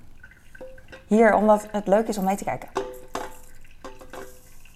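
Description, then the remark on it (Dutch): Water trickles and drips into a very large 0.4-litre glass holding instant coffee, with light clinks of glassware, while a person talks over much of the pouring. “Oh, ik weet niet of het te veel was, maar dit is een mega groot glas. 0,4 liter, dus daar kan wel wat water bij.”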